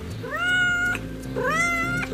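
A cat meows twice in a row, each call a drawn-out, rising-then-falling wail, clear with a low steady hum beneath, heard in a recording from an animal sound archive.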